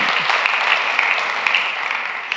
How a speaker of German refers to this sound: Und geben wir dem Herrn mal einen Applaus dafür.